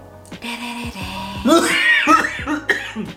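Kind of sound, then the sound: human body sound, cough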